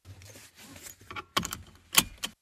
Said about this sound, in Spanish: O subirnos al auto y ponernos el cinturón de seguridad.